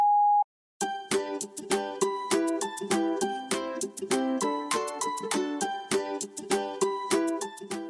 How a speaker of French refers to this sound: Merci de laisser un message après le bip sonore.